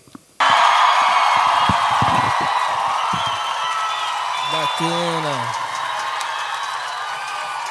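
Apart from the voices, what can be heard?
audience applause and cheering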